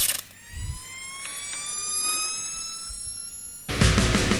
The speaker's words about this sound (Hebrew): יאללה, אם רק הייתי שומע פה אות של פינת ההופעות שלנו.